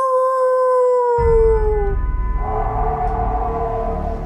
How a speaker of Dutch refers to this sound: Did you hear that? What was it? A coyote. There aren't any coyotes in England.